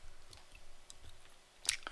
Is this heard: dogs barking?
no